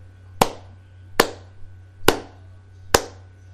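Four slow hand claps, evenly spaced about a second apart, each one sharp and loud with a brief ringing tail, over a low steady hum. No one speaks.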